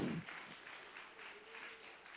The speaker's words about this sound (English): And if that's something that you can be happy about this morning, why don't you give the Lord a hand clap of praise that you're in that church?